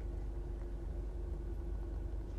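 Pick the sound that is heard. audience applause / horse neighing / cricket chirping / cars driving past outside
cars driving past outside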